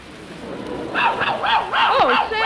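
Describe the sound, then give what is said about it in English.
An Airedale dog barks in a quick run of excited, yelping calls with a wavering, rising-and-falling pitch, starting after a short quiet moment and continuing without a break. “Hey, my dog must be on the trail of something.”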